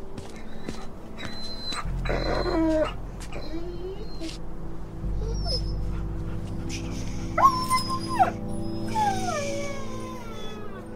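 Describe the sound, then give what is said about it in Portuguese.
The Whartons' injured dog whimpers and lets out high, wavering howl-like cries several times, over a steady low rumble like an idling engine. “É o cachorro dos Wharton. Caramba. Não vai sobreviver.”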